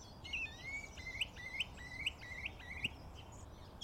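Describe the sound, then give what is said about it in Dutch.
A song thrush sings from the top of a tree, a bright, high phrase repeated about eight times in quick, even succession, each note sharp and clear, over a soft background hiss. “Zanglijster doet allemaal herhalingen en versnellingen en zo.”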